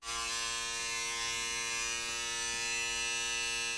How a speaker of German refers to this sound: Dann eine Hornisse.